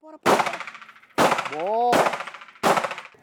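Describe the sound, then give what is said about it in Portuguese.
Four loud bursts of rapid gunfire from target practice by officers of the elite troop of the Mato Grosso do Sul State Highway Police, each a sharp crack trailing into quick rattling shots, with a brief ringing tone rising between the second and third bursts. No one speaks. “Enquanto parte da tropa segue nas estradas, esses policiais vão aperfeiçoando a mira com disparos certeiros.”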